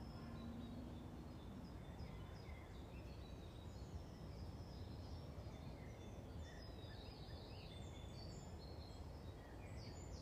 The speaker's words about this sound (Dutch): Om dit vogelconcert binnen te laten in jouw hart, in jouw wezen, in jouw leven.